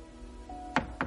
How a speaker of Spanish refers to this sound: Es una casita que hay al fondo del jardín. La cocina está vacía. Llama a la puerta del salón.